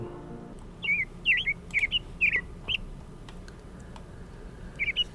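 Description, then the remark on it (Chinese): A young magpie's shrill, alarmed cries from its nest in a tree in a mountain valley during an evening thunderstorm: about six quick, sharp chirps in an uneven burst, a pause, then one more cry, all over a low, steady rumbling background. “最初，他还以为是在做梦，听到小喜鹊的惊叫声后，才缓过神来。”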